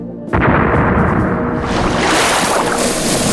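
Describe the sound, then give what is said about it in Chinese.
A pirate ship's cannon fires at a fleeing small boat with a sudden heavy boom, followed by a long roaring rumble and a second surge of blast noise, mixed with a churning wash of water. No voices. “可海盗船很快就赶了过来，开始用船上的大炮轰击他们。”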